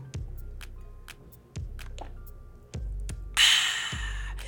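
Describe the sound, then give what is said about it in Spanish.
Someone sips and swallows water: a series of soft wet gulps and clicks at a steady pace, with a brief hiss of breath near the end, no talking. “Pero no, le voy a dar un traguito a mi agua y ahorita continúo.”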